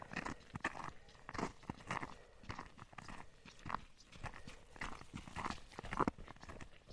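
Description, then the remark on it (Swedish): A dog and its female owner, out jogging in light snowfall, pass by, their footfalls making a steady, rhythmic patter of soft thuds and scuffs that continues for several seconds with no talking. “Oj, nu kommer en till hund. Ut och joggar med sin matte.”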